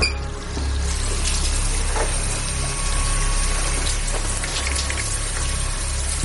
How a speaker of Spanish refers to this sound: Ari abre todos los grifos del baño mientras Kim le mira asustada y él le acerca el arma a la cara.